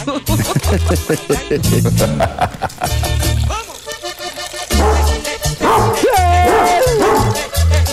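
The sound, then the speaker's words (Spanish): A dog barks repeatedly in short, loud bursts, with yipping and whimpering glides mixed in, set against a steady, rhythmic musical backing. “Amárrame tu mendigo perro.”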